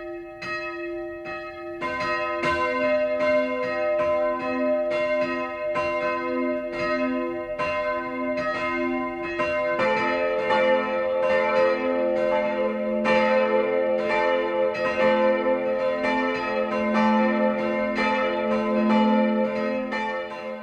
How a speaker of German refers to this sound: Weit klingen die drei Glocken der Maternuskirche von Motschenbach, Gemeinde Mainleus, über eine Talsenke des Frankenjuras bei Kulmbach.